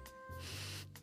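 Nasal sniffing at Haribo Goldbears gummy candies to tell the flavors apart by smell: a quick sniff, then a long drawn-in inhale through the nose, followed by another short sniff. Quiet and breathy, with no talking.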